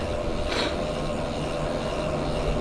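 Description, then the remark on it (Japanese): A car engine rumbles steadily, a low droning hum with a brief burst of hiss partway through, and no voices. “おお今日もバイクがブイブイ揺らしてますねあ車でして、ね、ちょっと道を外れますおおブイブイ”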